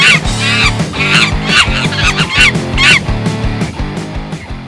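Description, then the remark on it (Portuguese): A loud, upbeat intro jingle with a steady bass line and regular percussive beats, topped by bursts of squawky, goose-like honking tones. No one speaks. “Vamos chamar agora a vinheta. Eu fiz uma vinheta.”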